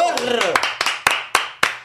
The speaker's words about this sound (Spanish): un aplauso